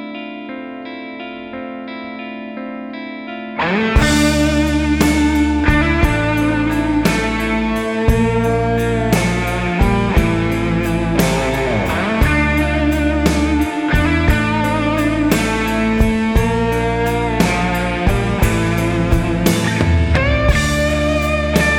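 A blues rock song opens on a sustained, droning chord, then a loud full band crashes in with driving drums, heavy bass and distorted electric guitar, keeping a steady beat with no singing.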